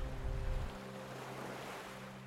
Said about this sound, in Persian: و میان امواج دریا امواج آرام دریا بالا و پایین میرین در حالی که آرام به خواب رفتین